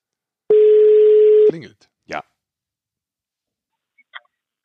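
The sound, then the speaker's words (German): A single steady telephone ringing tone sounds for about a second as a phone call is placed, then a short clicking pickup and brief rustles follow, with faint noises afterward. “also mal hoffen wir mal, dass er schon wieder runter ist vom Eis und dass er natürlich in den Katakomben. dass er auch ins Telefon geht.”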